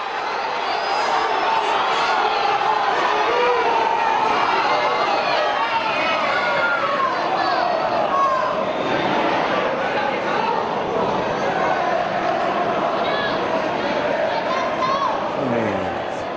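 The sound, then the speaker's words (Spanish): A large crowd of football fans waiting outside Mestalla stadium shouts and cheers without pause as players including Luka Modric get off, many overlapping voices forming a loud, dense roar with scattered individual yells and whoops rising above it. “la gente que está esperando. a ver, es, una zona donde hay, pues bastante radicales.”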